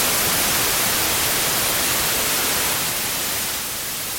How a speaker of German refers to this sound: White Noise. Habt ihr vielleicht schon mal gehört?